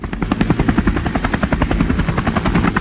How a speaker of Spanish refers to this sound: A ver si tú oyes. ¿Oyes el efecto del helicóptero o no?